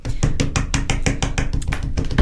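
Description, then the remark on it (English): A radio host's hand thumps rapidly and steadily on a desk, about a dozen heavy, dull blows in quick succession. The low thuds are loud and even, with no voices. “That, sorry, that was that was me thumping the desk in case, in case I didn't read on radio.”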